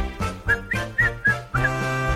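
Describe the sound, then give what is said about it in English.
A person whistles a brief, bouncy tune of about five quick notes in a steady rhythm, fairly loud, over a low sustained background tone with no talking. “That was me whistling.”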